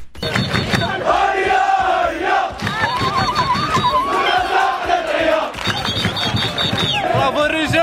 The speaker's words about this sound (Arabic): ووسط اجواء حافله بالفرحه والبهجه هزت شوارع مدينه القنيطره احتفالا بعوده منتخب الفوتسال بعد تحقيقه هذا التصنيف المشرف